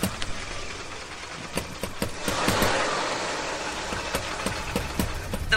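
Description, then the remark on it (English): A car engine runs steadily, its broad rumble swelling slightly midway, with irregular sharp knocks and rattles cutting through. No one speaks. “Stop the car now.”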